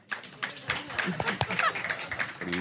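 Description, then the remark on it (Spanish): An audience claps and applauds, a dense crackle of many hands sustained throughout, with voices and a brief shout rising through the clapping toward the end. “tiene más, ha obtenido más aplausos.”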